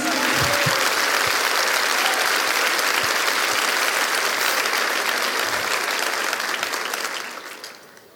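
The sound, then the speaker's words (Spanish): A crowd applauds loudly and steadily for Jesus, a dense wash of many hands clapping that holds for about seven seconds before quickly fading out. “Dele ese aplauso bien fuerte a Jesús.”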